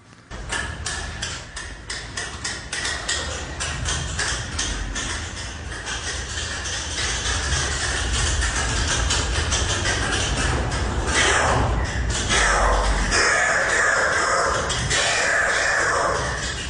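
A loud, dense chorus of oilbirds screeching and clicking inside La Gruta cave, recorded on a mobile phone, harsh overlapping calls echoing continuously with no pauses and no talking.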